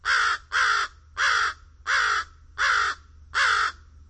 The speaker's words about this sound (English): Fish crows are a little smaller than American crows. Otherwise, they look very similar, but their voices are distinctive. The American crow's hoarse caws.